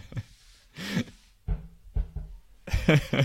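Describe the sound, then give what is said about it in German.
A person coughs in several harsh, irregular bursts after choking while speaking, with short gaps between the fits and no talking. “Es muss eine große Summe gewesen sein, mein Freund, dass er sich da gleich verschluckt.”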